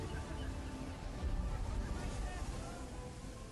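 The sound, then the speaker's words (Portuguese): A projected video of a ship at sea, with a steady, dense roar of wind and rushing water, loud and continuous throughout with little change in level. “Há uma projeção do barco aqui para nós assistirmos, enquanto entra aqui o barco.”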